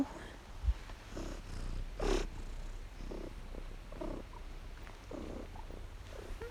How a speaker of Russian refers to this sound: Вы это слышали? Он мурчит.